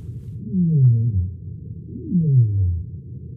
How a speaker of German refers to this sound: Warum kann ein Seiwal unter Wasser rufen? Denn wenn wir den Mund schließen und uns die Nase zuhalten, können wir nicht einmal summen. Strömt keine Luft durch den Kehlkopf, können die Stimmbänder nicht vibrieren. Wie also macht das der Seiwal?